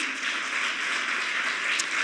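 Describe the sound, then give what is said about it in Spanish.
A church audience applauds God's good will, a steady wash of many hands clapping together without pause, dense and even in loudness, with no voices rising above it. “Tengo muchas ganas de que le aplaudas por la buena voluntad de Dios.”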